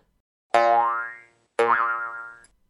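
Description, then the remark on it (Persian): Two loud cartoon boings of springs popping loose, each a sharp twangy strike with a wobbling, bouncing ring that fades, spaced about a second apart with no talking: loose springs of a worn mattress popping out and jabbing into the spine of someone lying on it. “تنها چیزی که میتونست تسکینم بده فرو رفتن توی تشک بود اما همونطوری که میدونید تشکم هم تشک نبود و پر بود از فنرهای در رفته که زرپ و زرپ در میرفت و میخورد وسط ستون فقراتم”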